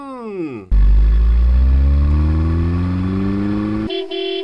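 A car sounds its horn in one long, loud, close blare of about three seconds over a steadily rising engine tone, then a brief quieter sound at the end.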